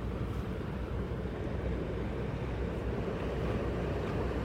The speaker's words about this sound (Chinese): 你觉得听海浪很催眠，你知道吗？哈、哦，听海浪声很催眠呢。难怪人家那个冥想的音乐都用海浪那边。